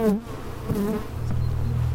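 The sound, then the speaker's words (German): Agitated guard honeybees buzz loudly around the black windscreen of a reporter's microphone, attacking it, a continuous droning hum whose pitch wavers and swoops as they circle, with several overlapping buzzes and no voices. “Der schwarze Windschutz auf dem Mikrofon des Reporters wird zum begehrten Angriffsziel für einige Wächterinnen.”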